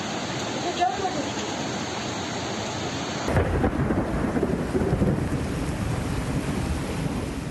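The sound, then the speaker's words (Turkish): A midday thunderstorm in İzmir, Turkey: heavy rain pours down in a steady, dense hiss, flooding the streets, and a deep thunder rumble rolls in partway through, swelling louder and lingering beneath the downpour. No clear talking is heard. “İzmir'de de öğle saatlerinde başlayan gök gürültülü sağanak yağmur sokaklardan sel olup aktı.”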